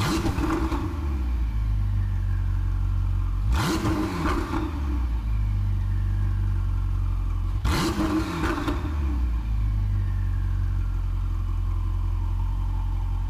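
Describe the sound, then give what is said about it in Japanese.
The deep, steady twin-turbo 3.9-litre V8 engine of a 2018 Ferrari 488 Spider, an Italian sports car, rumbles at idle, then is revved hard twice, each rev a sharp rising roar that drops back to the low burble; loud, no voices. “ツインターボを搭載した3.9リッター V 型8気筒エンジンの羽馬サウンドでした”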